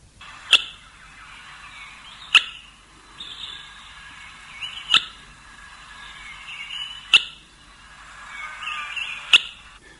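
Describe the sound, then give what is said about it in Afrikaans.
An African goshawk gives five sharp, clicking calls spaced evenly about two seconds apart, each crisp, with faint birdsong and a soft ambient hum behind them. “Wie ek wel dink moontlik kan skade doen in jou tuin is die Afrika sperwer en hy klink so. Hierdie roep laat my altyd dink aan twee rivierklippe wat dit meeste mekaar kap.”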